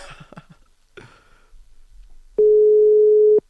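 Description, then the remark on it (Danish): A few soft clicks and handling noises, then a single loud, steady telephone ringback tone sounds for about a second while a call is placed to a guest during a live radio broadcast. No one speaks. “skal vi ikke prøve at se, om vi kan ringe øh, Andreas Schamberg op”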